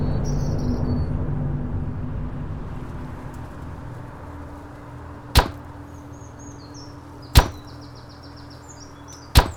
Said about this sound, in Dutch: Na een paar doffe klappen staan nu ook de laatste palen in de grond.